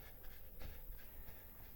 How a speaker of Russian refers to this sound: Быстрое прерывистое дыхание, как у бегуна на забеге. Только эти звуки и шуршание воротника на моей шее.